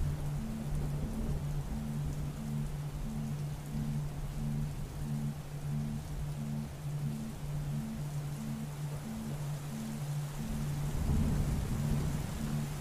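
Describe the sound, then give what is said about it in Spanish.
Steady rain hisses throughout a summer thunderstorm, with low thunder rumbling underneath and swelling into a louder roll near the end. A faint, steady low hum sits beneath it all, and no one speaks. “Nada es más importante ahora que esta tormenta de verano que estás presenciando en este momento.”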